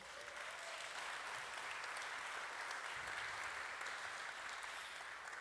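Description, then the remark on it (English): A church audience claps steadily in thanks to God before a baptism, a dense, sustained wash of applause that holds at even loudness from start to finish, with no voices standing out. “And so I just want to say, let's applaud and say thank you, God.”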